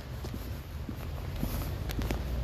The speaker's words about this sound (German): Ja, es scheint. Aber das klingt eher so, als würde es auf Blätter oder sowas tropfen.